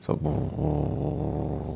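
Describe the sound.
A voice imitates a pygmy hippo's grumbling with a low, continuous rumbling growl held for under two seconds, steady, after a brief spoken syllable.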